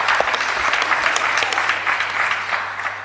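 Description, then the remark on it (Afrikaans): Many people clap steadily, a dense wash of applause holding at the same strong level throughout before easing slightly at the end. “So um, geef haar 'n klap.”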